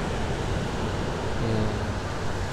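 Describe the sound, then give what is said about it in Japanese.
A steady, full rush of wind and surf at the Wayama coast (和山の海岸) beach, filling the whole stretch without pause, with a faint low tonal hum surfacing briefly in the middle. “えー、和山の海岸からこの放送をお届けしてるんですが”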